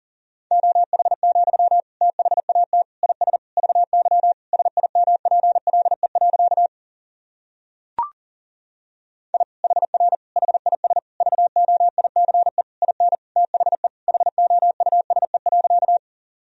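Fast Morse code at about 40 words per minute sending practice sentences built from the top 500 words and abbreviations: a steady mid-pitched tone keyed in rapid dots and dashes, two long runs separated by a short pause with a single click.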